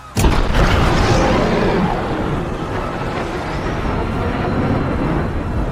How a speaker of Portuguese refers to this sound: De repente, um jato passou pela rua, atirando em todo mundo. Os dois até correram, mas voaram longe com a explosão.